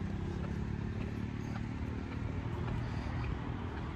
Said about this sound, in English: Motorcycle, there's wind, there's traffic. It's the sounds of the city, and it's an immersive experience. So put your headphones in stereo, kids.